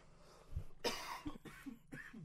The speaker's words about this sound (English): Cough, cough. Sorry about that, you guys.